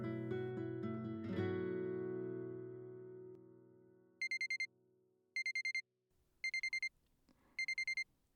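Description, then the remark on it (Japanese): A clock marks midnight: a resonant chime rings out and slowly fades, followed by four short bursts of rapid, high electronic beeps at even intervals. No voices. “12時を告げるこの音を聞くたび切なくなる”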